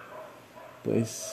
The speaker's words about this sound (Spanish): Igual una disculpa por los perros que pueden andar escuchando dentro del podcast